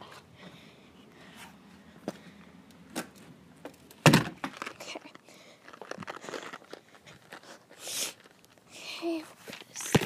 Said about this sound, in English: Opening the door with one hand.